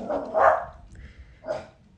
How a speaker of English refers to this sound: Excuse our dog. that was Peto. He's trying to bark at the neighbor, which he hates.